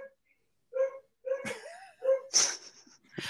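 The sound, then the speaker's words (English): A dog named Eddie barks in the background, several short, whiny barks and yelps in quick succession, moderately loud, with brief pauses between the outbursts and no talking. “so what we've got Eddie from last season is barking in the background for some reason.”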